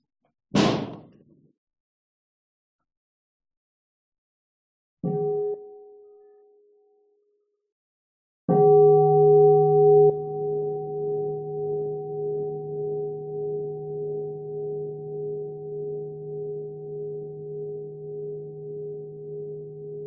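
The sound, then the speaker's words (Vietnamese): A meditation bell is struck by a Buddhist nun, a brief soft tap and a muted strike first, then one full stroke that rings out loud and long, its deep tone slowly pulsing as it fades. No talking. “xin sư cô à, cho một tiếng chuông để mọi người à, buông thư trước khi mình tiếp tục”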